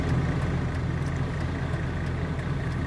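Steady, loud road and engine rumble of cars speeding past, heard through a car's open windows on a warm day with 18 degrees outside; a continuous low roar with faint higher hiss and no talking.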